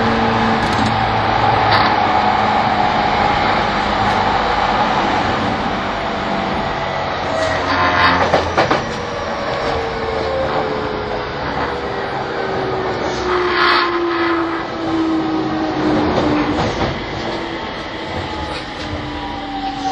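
An E231 series Yamanote Line outer-loop train running in Tokyo, Japan, bound for Komagome station, with a steady loud rumble, a whining electric motor tone that slowly shifts pitch, and occasional clacks and rattles over the rails.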